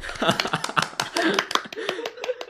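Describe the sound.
A short burst of applause from a few people, quick irregular claps overlapping for a couple of seconds, with faint voices murmuring underneath.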